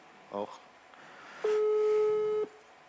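A telephone ringback tone sounds while a call is being placed to a band member during a live show: one steady, clear beep about a second long, preceded by a brief soft blip on an otherwise quiet line.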